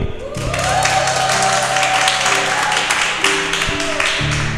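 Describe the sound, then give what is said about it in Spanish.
A crowd claps and cheers steadily for several seconds as a greeting to people connected via Zoom, a dense, loud wash of many hands with scattered shouts and a faint low hum underneath. “Voy a poner el micrófono acá para que los saluden, le hagan un aplauso y una bullita.”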